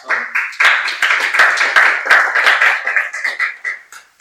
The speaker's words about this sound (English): there, there's a couple of you who didn't clap.